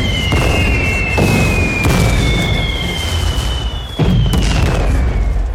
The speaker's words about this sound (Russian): Огонь! Снаряды ложатся в нескольких метрах от черепа Чухи и связиста.